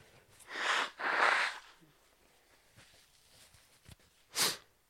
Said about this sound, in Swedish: Snyta sig måste man göra också. Den här stora snoken rymmer så mycket.